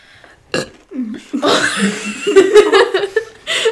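A long, loud burp delivered into the microphone, rumbling and drawn out for a couple of seconds, followed by a short burst of laughter.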